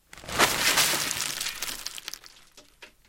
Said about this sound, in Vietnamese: Kyong Sim mang túi ngô chạy như bay về nhà. Nhưng vì gấp quá nên túi bị văng ra sàn, bung cả miệng khiến những hạt ngô tuôn ra ào ào.